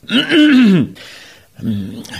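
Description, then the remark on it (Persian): A court poet clears his throat before going on reciting to the shah, with a voiced, drawn-out "ahem," then after a short breathy pause gives a second, lower rasp, fairly loud. “مفخر و شعرا سینه صاف میکند و با کمی دست باچگی ادامه میدهد”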